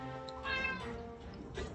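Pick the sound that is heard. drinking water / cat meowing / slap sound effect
cat meowing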